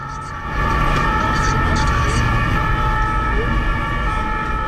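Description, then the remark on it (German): A siren of a Schutz und Rettung Zürich fire engine on its way to a fire in an office building on Langstrasse in Zürich blares at a steady, unwavering pitch for several seconds, layered over a heavy, constant engine rumble that kicks in loudly after a brief quieter start. “Sofort sind die Feuerwehrleute Stangen abgerutscht und mit ihren Feuerwehrautos in Einsatz an der Langstrasse gefahren.”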